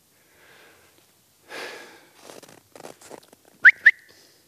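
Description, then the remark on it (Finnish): Two short, sharp whistle blasts in quick succession, each sweeping upward, loud, preceded by breathy rustling and soft handling noises outdoors, as someone whistles to call two hunting dogs back. No one speaks. “Pitäisiköhän mä kokeilla kuttonta kahta ennen kuin ne lähtee kovin kauas.”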